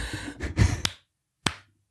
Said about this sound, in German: ich habe in äh, super gleichmäßigen Abständen geklatscht. Ja, wirklich. Sauber.